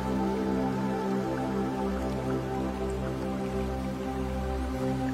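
Steady flowing water runs without pause, its even wash dotted with small drip-like splashes and a faint low hum underneath, holding a constant level throughout with no voices.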